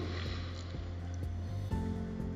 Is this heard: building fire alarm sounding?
no